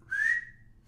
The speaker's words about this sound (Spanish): en que el burro, caminando, andando por el campo, se topa con una flauta tirada a la mitad del campo. El burro, sin saber qué es ese objeto, se acerca y sopla.